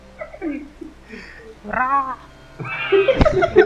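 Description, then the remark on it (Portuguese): A person's voice imitates the call of a Trobo, a strange creature, like a dying chicken: a few low warbling noises, then a rising squeal and a loud, strained, broken squawk. “é uma galinha morrendo, né?”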